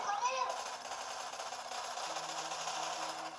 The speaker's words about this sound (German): Ich komme hoch, ich bin tot. Da kommen 1 Million Schüsse auf mich.